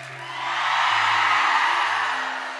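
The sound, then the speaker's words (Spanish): A crowd of women lets out a loud, sustained joyful shout, swelling and then fading over a couple of seconds, with a low steady hum underneath. “Las mujeres,”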